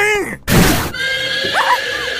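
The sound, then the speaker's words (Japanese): A carriage horse whinnies in a high, quavering burst as the carriage arrives, then a loud rough rush of noise cuts in for half a second, followed by another shorter, wavering neigh over a steady background hum. “お父様の馬車がほら早速お出ました”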